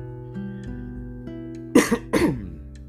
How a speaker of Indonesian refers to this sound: Duh, dari dulu sampai sekarang batuk gua nggak hilang-hilang.